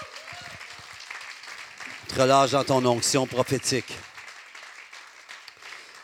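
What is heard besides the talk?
audience applauding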